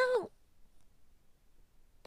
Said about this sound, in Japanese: 少し低めの大きな猫の声長い素敵なふわふわの縞模様の尻尾で手とそこには子犬より大きいオス猫のテトがいた